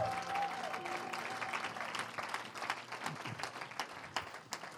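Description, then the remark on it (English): An audience claps their hands together in sustained, dense applause, a steady crackle of many overlapping claps with a few brief tonal notes sounding faintly underneath at the start. “Clap your hands for my wife.”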